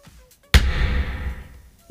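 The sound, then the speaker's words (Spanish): A ballpoint pen is set down on a table with one sharp tap, followed by a brief low resonant rumble that fades out. No voices accompany it. “Eso significa que he dejado el boli en la mesa porque he encontrado cómo se puede preparar en casa.”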